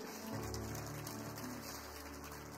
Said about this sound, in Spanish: Le damos un aplauso al campus virtual.